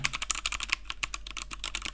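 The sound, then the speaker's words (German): Rapid, irregular clicking of computer keyboard keys being typed on, crisp, with dense bursts of keystrokes throughout and no voices. “Ja, auch, warte, jetzt soll ich mal kurz ASMR geben.”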